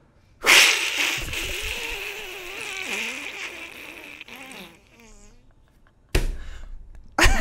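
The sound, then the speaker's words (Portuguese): A voice imitates Donald Duck tumbling off a cliff into an abyss: a sudden raspy squawk, then a long wavering, sliding vocal cry that fades out, followed by abrupt noisy bursts. “Já viu o, o Pato Donald caindo do abismo? Não. É assim, ó.”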